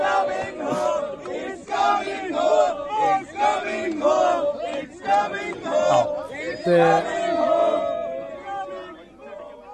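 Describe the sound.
A large crowd chants a football song together, voices loud and ragged, the melody wobbling off-key as the singing surges and dips in uneven phrases.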